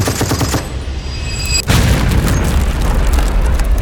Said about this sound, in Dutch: De trein staat in lichte laaien en de ontploffende lading vliegt in het rond. De kostbare munitie valt tot ver rondom het spoor op de grond.